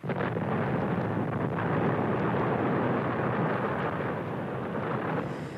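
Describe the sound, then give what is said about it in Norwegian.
A loud, sustained roar of explosions as three passenger airliners are blown up in the desert, sending huge clouds of jet-black smoke up. It rumbles on for several seconds, a dense low-heavy blast with crackling bursts through it and no voices. “De tre passasjerflyene ble sprengt i lufta, og enorme skyer med kullsvart røyk steg opp fra ørkenen.”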